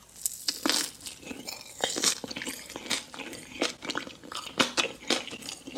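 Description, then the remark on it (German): Crunchy chicken skin being bitten and chewed, a rapid series of sharp, crackly crunches repeating irregularly for several seconds, fairly loud with no talking. “Hähnchenhaut.”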